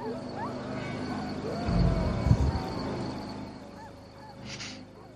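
Low, rumbling growls and snarls of wolves rise briefly near the middle, rough, over a steady noisy background with faint bird-like calls.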